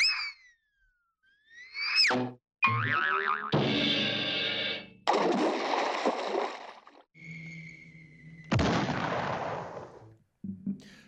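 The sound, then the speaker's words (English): A loud, noisy water splash sound effect comes amid a quick run of cartoonish whistles, boings and bursts, all punchy with short gaps between them and no talking. “How many ripples of water were in that uh, splash?”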